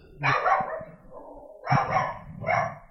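A dog barks three times, a longer first bark followed by a pause and then two quick, loud barks in a row, with no one talking.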